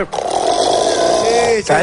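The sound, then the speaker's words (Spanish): One long, loud, rasping snore: a gravelly, growling rumble held for over a second, breaking off briefly before a second snort begins. “Claro, porque hay distintos tipos de ronquidos.”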